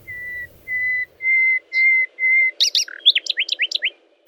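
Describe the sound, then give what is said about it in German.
A nightingale sings alone in the morning in a forest: five steady, evenly spaced high whistled notes, then a quick burst of sharp chirps and rapid descending slurred notes, loud and clear with a faint low rumble beneath. “Er war nur leider etwas schüchtern und deshalb heilfroh, dass er mit dem Morgenkonzert beginnen durfte.”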